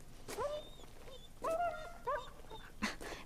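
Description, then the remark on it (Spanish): A dog whimpers and gives a few short, high barks in quick bursts, with faint background noise and no speech. “¡Qué perro tan bonito!”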